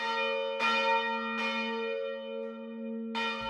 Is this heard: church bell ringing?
yes